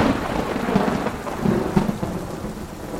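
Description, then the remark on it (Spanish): Steady rain hisses throughout while deep thunder rumbles and rolls underneath, swelling in a few low surges; a dense, enveloping storm with no voices. “La niña se refugió durante una semana en las Azores para encontrar, al reanudar la navegación, con otra terrible tormenta.”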